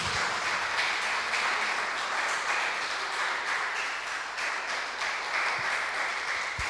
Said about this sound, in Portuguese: Você pode aplaudir ao Senhor por isso?